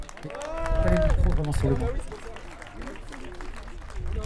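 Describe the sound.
An audience claps for visiting friends from Bure in a dense, steady patter, with raised voices calling out over it; the applause is strongest at first, then eases to a lighter, continuing clatter.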